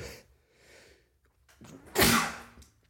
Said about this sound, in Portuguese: Espirrei, não sei se isso acontece nas vossas terras, aqui acontece muito.